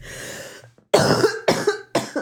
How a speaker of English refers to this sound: oh, see, I'm still coughing and my ribs hurt.